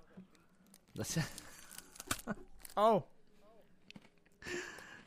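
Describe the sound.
Crisp, crackling crunches from bites into a beef-flavored rice cake, a few sharp bursts of brittle snapping, with a short voiced exclamation in between and a faint rustle at the end.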